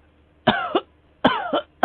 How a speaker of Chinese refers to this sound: 大夫，我咳嗽的很很厉害呀，您您能不能帮我开点药给我呀？